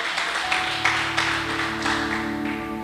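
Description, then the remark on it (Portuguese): An audience applauds to the Lord at night with steady, fairly loud clapping and recurring accented claps, while sustained keyboard chords hold underneath. Nobody speaks. “Você pode aplaudir ao Senhor nessa noite?”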